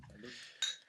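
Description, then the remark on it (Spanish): A bright glass clink rings out once near the end, short and sharp, after a moment of soft low murmuring and shuffling, as glasses are touched together in a toast of "salud". “si me permiten, pues, siempre hay que empezar con salud, ¿no?”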